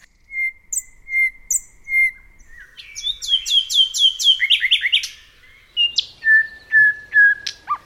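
bird, nightingale song

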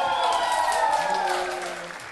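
crowd, audience applause and cheering

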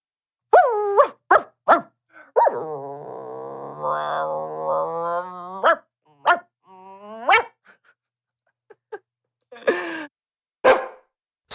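animal, dog barking and growling

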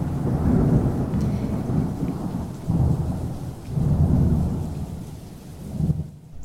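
nature, rain and thunder

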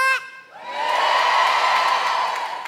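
crowd, audience shouting and cheering

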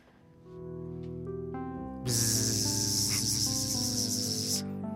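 insect, fly buzzing around

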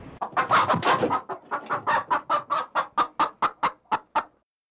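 bird, chickens clucking

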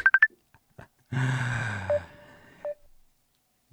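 signal or alarm, telephone dialing tones

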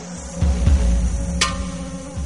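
insect, bees buzzing

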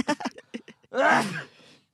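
human body sound, sneeze

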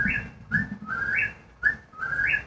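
bird, whippoorwill call

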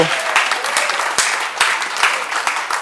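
crowd, applause

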